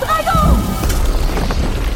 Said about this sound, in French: Waouh Quelle explosion Le sortilège de feu de Bloom a envoyé Ogron six pieds sous terre.